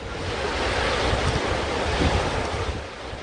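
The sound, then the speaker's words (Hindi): Steady roar of ocean surf washing onto the shore at Kanyakumari, India, broad and continuous with gentle swells, mixed with gusty wind buffeting the microphone. No voices are heard. “कन्याकुमारी में समंदर का ये किनारा समुद्र की हिलोरों की आवाज़ में कांग्रेस की उम्मीदों की आवाज़ सुनी जा सकती है”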